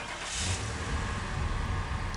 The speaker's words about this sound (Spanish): Conduce su auto.